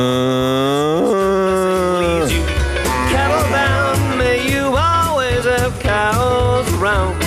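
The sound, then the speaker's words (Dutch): A person imitates a frightened cow, letting out a long, loud moo followed by a run of shorter, wavering, strained moos with bending pitch, no pauses between them. “En als de koe bang is, hoe klinkt het dan?”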